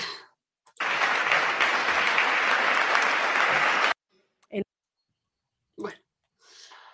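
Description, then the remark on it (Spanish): A burst of audience applause, steady and loud for about three seconds, then cutting off abruptly; a few brief voice sounds follow in the quiet afterward. “¿Pero por aplauden?”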